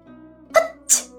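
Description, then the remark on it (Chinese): A single sneeze brought on by the chill of early spring: a short voiced catch of breath followed by a sharp, hissing burst of air, heard on its own over a faint, steady low hum. “初春的凉意让云溪打了个喷嚏。”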